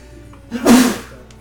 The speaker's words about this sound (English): I'm going to sneeze.